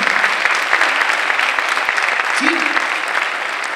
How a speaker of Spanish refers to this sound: En esta mañana, denle un aplauso a Jesús si usted puede hacer eso.